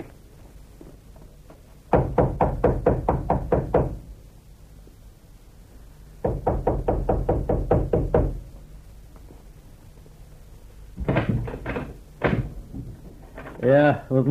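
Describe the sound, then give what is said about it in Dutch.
Two loud bursts of rapid, evenly spaced knocks on a door, each about eight or nine raps, separated by a short pause; a voice speaks briefly afterward. “Dit beste wachter is juist de reden van ons kloppen. Wees zo vriendelijk en open de deur en onze dank zal je deel zijn.”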